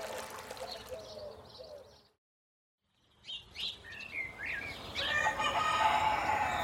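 Gallic roosters (coq gaulois) crow at the Conservatoire du Coq Gaulois amid a chorus of chirping birds, with a brief silence midway before the calls return, growing louder toward the end. No one speaks.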